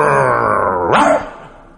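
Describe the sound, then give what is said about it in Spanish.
A dog lets out a drawn-out, growly vocal sound that swoops upward into a single yelping bark, fairly loud, as if answering a spoken question, then fades off with no one talking. “Chingón el perro, así contestaba, ¿cómo no?”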